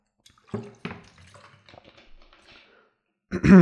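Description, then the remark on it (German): Sips of water: a couple of wet slurping gulps, some quiet swallowing and small mouth sounds, then a louder burst near the end as the drinking finishes. “Ich muss dann kurz einen Schluck Wasser trinken.”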